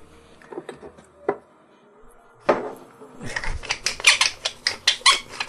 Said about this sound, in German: Quietscht ein bisschen meine Pfeffermühle.